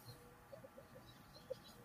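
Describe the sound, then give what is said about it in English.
Blackbirds squawk faintly in the background, a handful of short, scattered calls with one sharper cry standing out near the end, and no one speaking. “Can you hear these blackbirds in the freaking bleeding through in the background?”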